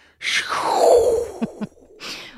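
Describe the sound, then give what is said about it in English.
A person imitates the sound of gas and dust in space with a wispy, whooshing gust: a long breathy exhale that slides downward in pitch, followed by two small clicks and a short, softer breathy puff at the end. “But on the other hand, I also somehow imagine all the gas and dust and stuff making kind of a wispy, whooshy kind of thing, kind of like a.”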